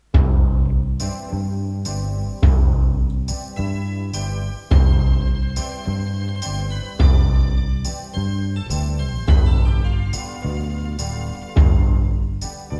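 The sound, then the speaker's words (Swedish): An instrumental soundtrack piece in a quasi-Italian folk style, played loud with bright plucked or squeezed tones and strong, regular accented beats. Nobody is talking. “Ja, det ska vara någon sorts kvasi-italiensk folkmusik typ, eller?”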